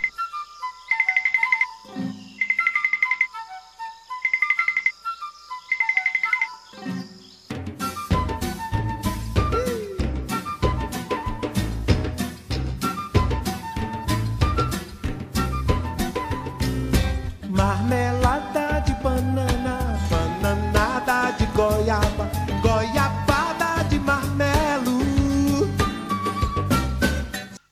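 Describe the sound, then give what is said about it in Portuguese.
A telenovela opening theme song starts with a bright, chiming melody in short repeated bursts, then a full band bursts in and carries on loud and steady to the end. “Ok, vamos ver se a Eva conhece essa abertura.”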